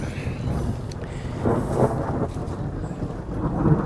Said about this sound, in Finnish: kesäisen ukkosen saattelemana alkaa meidän tämänkertainen luontoilta lähetyksemme.